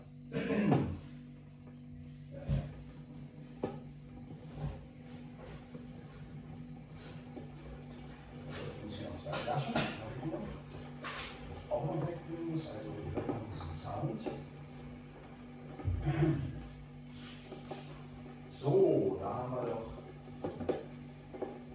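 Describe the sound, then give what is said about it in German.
A coffee machine, just switched on, runs with a steady low mechanical hum, broken by occasional clunks and clattering knocks, while a voice murmurs faintly in the background. “da in der Öl jetzt die Kaffeemaschine”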